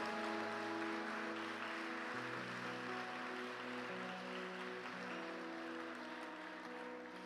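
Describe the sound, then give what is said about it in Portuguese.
An audience applauds the Lord steadily throughout, a dense wash of clapping layered over sustained keyboard chords that shift a few times, with no talking. “Pode aplaudir ao Senhor.”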